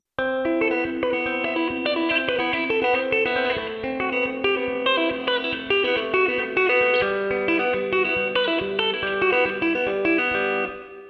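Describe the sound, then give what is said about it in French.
A fast, distorted electric guitar riff plays on its own at normal speed, with rapid repeated open-string notes driving a steady, dense rhythm and a thick, saturated tone that stays loud throughout. “le riff, lui, une fois qu'il est joué euh, entièrement, une fois qu'on joue ça à la vitesse normale, en fait les notes à, vide, on va les entendre euh, à peine, mais elles vont être très rapides et ça va donner ceci.”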